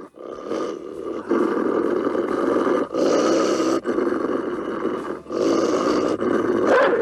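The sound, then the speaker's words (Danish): A deep, rough wolf growl rumbles continuously with a few brief pauses, loud, building in intensity toward the end with no voices present. “Yep, så kunne du regne med, at jeg vil være indenfor hurtigere, end du kunne nå at stave til ULV.”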